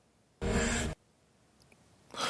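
A loud breath lasting about half a second, a broad rushing exhale, followed by quiet and then the start of another breath at the end.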